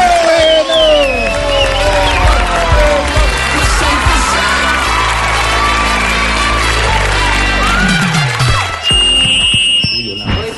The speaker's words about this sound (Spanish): Recibamos con un fuerte aplauso al señor JJ Rendón.